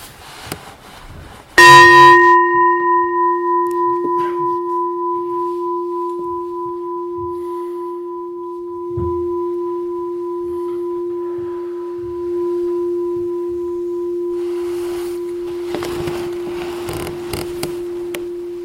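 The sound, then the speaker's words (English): A single meditation bell is struck once, ringing out with a clear sustained tone that slowly fades over many seconds, with faint rustling at the end. “so we'll start and end with the bell.”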